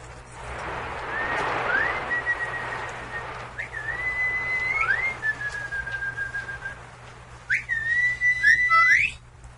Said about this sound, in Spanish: De modo que los dos viejos llegaban y empezaban a dar un silbidito que las muchachas entendían muy bien.